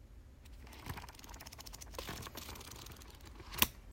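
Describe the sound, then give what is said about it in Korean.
Book pages flip quickly in a steady papery flutter of crisp little taps that runs for several seconds. It is moderately soft, with one sharper snap near the end and no voices. “빵과 책과 함께 살아가는 책방소 행성에 책을 휘리릭 넘기는 소리 들으면서 마무리하겠습니다.”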